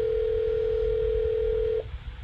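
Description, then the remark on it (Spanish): A phone line gives one long, steady ringback tone for nearly two seconds before cutting off, loud, over a low background rumble, as a call to someone in Medellín, Colombia goes unanswered with no one speaking. “Otra que no atiende. A ver. Manu no atiende.”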